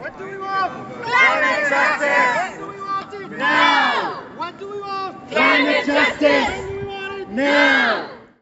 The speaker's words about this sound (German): In Karlsruhe wurde indes viel weniger laut wegen Israel-Palästina demonstriert als denn für Climate Justice. Klimagerechtigkeit sofort, rufen hier hunderte junge Christinnen und Christen.